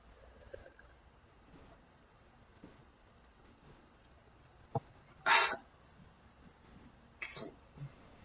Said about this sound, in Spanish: Disculpenme de verdad por el tema del hipo.